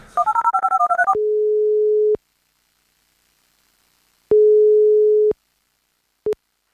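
A quick burst of phone keypad dialing beeps for a call to Rostock, then a steady telephone ringing tone before voicemail answers: two long one-second pulses separated by a long silence, and a third that cuts off almost immediately.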